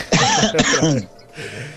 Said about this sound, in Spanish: me hace toser. me hace toser.